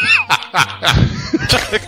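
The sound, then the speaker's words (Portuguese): A small dog yips in quick, high-pitched bursts, mixed with thin whimpering whines, fairly loud, with short pauses between the cries. “Você viu meu cachorrinho por aí?”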